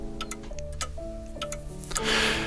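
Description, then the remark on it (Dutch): A clock ticks with sharp, crisp clicks at a fairly steady pace over a low sustained hum in a home on a Saturday morning, while the newspaper rustles and coffee brews; a broad hissing swell rises near the end. “Dan ritselt de krant, tikt de klok en loopt de koffie door.”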